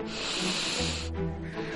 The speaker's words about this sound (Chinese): 撸宝一个机灵，明白了猫洛克的意思，小鼻子用力的一嗅